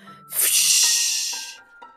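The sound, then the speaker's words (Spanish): A voice imitates a strong rushing wind with one long, breathy whoosh that swells quickly, holds for over a second, then fades, fairly loud with no other sounds. “Iba tan rápido que al pasar provocaba un viento muy fuerte que hacía...”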